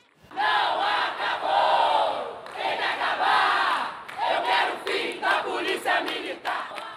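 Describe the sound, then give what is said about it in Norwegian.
Supporters of murdered Rio de Janeiro councillor Marielle Franco shout slogans in unison, demanding to be rid of the military police, loud and sustained, with rhythmic bursts of chanting that swell and dip over several seconds. “Vi vil bli kvitt militærpolitiet, roper Marielli Francos tilhengere.”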